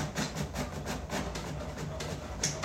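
A printer runs steadily, its mechanism whirring with a regular rhythmic clatter as a page feeds through, moderately loud, with no voices.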